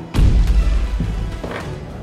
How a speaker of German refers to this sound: Aber du zählst, wie oft du würfelst, ne?